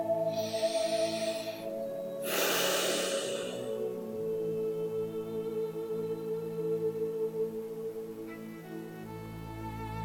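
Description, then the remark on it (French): One slow, deep breath in and then out: two airy rushes in the first four seconds, over a soft sustained musical drone that carries on alone. “Respirez un peu, prenez quelques grandes respirations profondes.”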